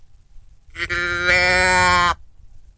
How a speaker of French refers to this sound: La femelle chevreuil, ça ressemble à un mouton, un peu. Euh, c'est comme un bêlement c'est une chose aussi que c'est pas comme un, un orignal. Tu n'entendras pas ça à, des kilomètres. Mais quand tu l'entends attaquer ça ressemble à ça.